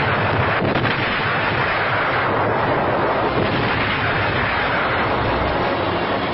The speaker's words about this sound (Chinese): 然后借这个机会发动战争，炮轰沈阳北大营。